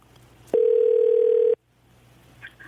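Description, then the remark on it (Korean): A single steady telephone ring tone, as the host calls back a listener who phoned in, sounds for about a second, loud and mid-pitched, with faint line hiss before and after and no one talking. “6502님 전화 걸어볼게요.”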